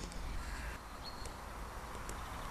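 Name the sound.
birds calling outdoors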